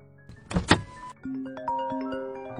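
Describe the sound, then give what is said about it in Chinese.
A car door opens with a short, loud burst of mechanical clatter and rustle, followed by a steady run of bright, stepping electronic tones as a mobile phone starts to ring. “萧雨刚打开车门，手机响了起来，他看了看江城，江城给了他一个放心的眼神，萧雨这才接起电话。”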